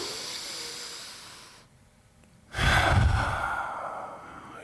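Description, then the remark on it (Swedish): Slow, deep belly breathing: a long airy breath, a brief pause, then a louder, fuller rush of air as the next breath is drawn in, the belly pushing out, and let out. No one speaks. “Och andas ut. Andas in, magen åker ut.”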